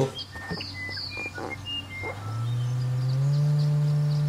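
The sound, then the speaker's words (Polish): A steady low pure tone drones continuously, stepping up in pitch twice and growing louder, while faint bird chirps twitter in the background. “To jest 147,5, 158,7, 180 i to są częstotliwości, słuchajcie, które słyszymy.”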